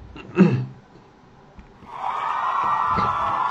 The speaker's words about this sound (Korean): 박수!